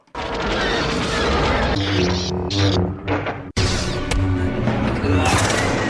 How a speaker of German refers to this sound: Ist ja so ein Film, da gibt's fünf mhm. Millionen Explosionen, 1000 Kämpfe mit den Laserschwertern. Klingt ja eigentlich immer so.